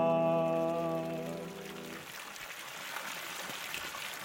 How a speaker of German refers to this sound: Der Geschichtsbrunnen auf dem Sulzbacher Marktplatz plätschert rund um die Uhr, unterscheidet nicht zwischen Tag und Nacht.